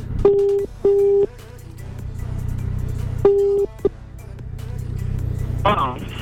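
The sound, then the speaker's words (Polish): A phone ringback tone sounds as a call is placed, in short, steady beeps, two close together, then another pair after a pause, over a constant low rumbling hum like a running car engine. “Dobra, dzwonimy.”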